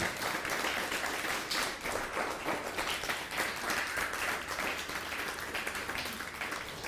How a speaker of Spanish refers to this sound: Ok, bueno, pues ahora sí un fuerte aplauso, por favor. Aplauso, aplauso, aplauso.